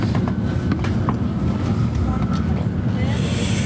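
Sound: inside a moving train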